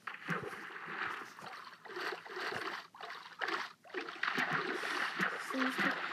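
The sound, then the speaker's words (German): Water splashes and sloshes in repeated bursts over several seconds as someone jumps onto water, steady in loudness, with voices faintly present in the background. “springt auf Wasser.”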